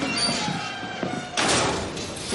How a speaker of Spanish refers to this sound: Un vigilante cierra la puerta